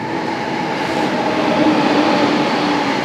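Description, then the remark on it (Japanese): A train rumbles past, a loud, steady roar of wheels on rails with faint tonal hum, swelling slightly in the middle and filling the whole moment with no voices. “ちょっと電車がうるさいかもですね。”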